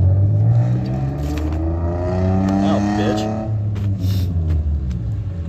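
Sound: car engine revving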